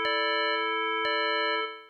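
An alarm clock rings with a loud, steady, shrill tone, broken by two sharp clicks, then cuts off abruptly after about a second and a half. No one speaks.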